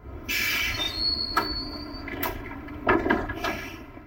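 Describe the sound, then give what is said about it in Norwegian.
Tram wheels squeal in a thin, high whine over a rumbling rail car, with a few sharp metallic clanks and thumps as the tram moves slowly into a tram stop. “Han er på vei inn på, eh, på trikkeholdeplassen her nå.”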